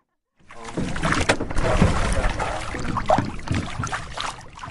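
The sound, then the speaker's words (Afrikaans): A ferryman rows a rowboat across a river mouth, the river full and muddy from heavy rain, water sloshing and splashing steadily around the hull with irregular oar strokes, fairly loud, no voices present. “Die veerman se spiere bult en hy knars op sy tande terwyl hy oor die rivier roei.”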